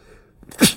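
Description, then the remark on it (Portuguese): A single sharp sneeze bursts out after a brief inhaled buildup, loud and forceful, then fades quickly. “Perdão. Uh. Saúde.”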